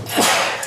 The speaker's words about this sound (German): Gesundheit. Gesundheit.